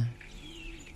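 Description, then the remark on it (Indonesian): Soft, steady chirping of a kept bird carries through the second, faint, with a low murmur underneath and no clear voices, while a man cleans the bird's nest. “Bapak lagi kasih bersihin sarang burung bentar uh.”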